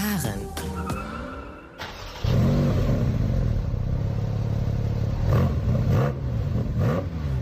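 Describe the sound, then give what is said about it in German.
A Porsche 718 Cayman GT4 RS engine fires up and revs hard, settling into a loud, throbbing idle with sharp throttle blips, echoing in an underground parking garage. “Okay, dann äh, drehen wir mal den Schlüssel, würde ich vorschlagen, und fahren mal eine Runde.”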